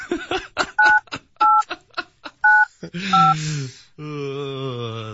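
Four short telephone dialing beeps sound at a steady pace, clear, with brief chatter and clatter between them, then a longer sustained tone at the end, as a phone call is placed live.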